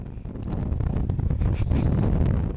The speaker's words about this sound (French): Et nous avons pris un, puis deux, puis trois vents. Cet homme peine à tenir debout, tant le vent souffle.